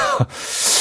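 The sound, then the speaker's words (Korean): A short burst of breathy, hissing mouth noise, a voice imitating the crisp riffle of banknotes being flicked through as they are slipped out of a money envelope, with no words spoken. “아, 이렇게 보고 빼면서 소리 나니까 입으로”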